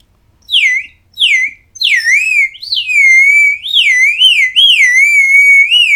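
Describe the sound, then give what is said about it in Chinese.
A bamboo water bird whistle, made from one section of guizhu bamboo open at the top with a smaller tube through the middle and filled about seventy percent with water, is blown, giving high, warbling chirps: two short rising-falling calls, then a continuous bubbling trill that wavers up and down like birdsong, fairly loud and alone. “这个就是水鸟笛， 其实就像我现在眼睛看到它在吹，我还是认为这个就是真的是鸟叫的声音，你知道？”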